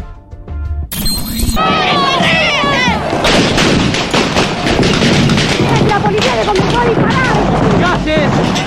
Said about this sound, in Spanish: Eso produce una balacera tremenda que podemos tener algunos audios en este momento.